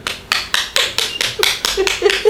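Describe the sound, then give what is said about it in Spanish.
Steady hand clapping, about nine or ten sharp, bright claps in quick, even succession, fairly loud and with no voices over them. “No, no estoy tabaqueando una caja de cigarros, ¿eh? estoy aplaudiendo.”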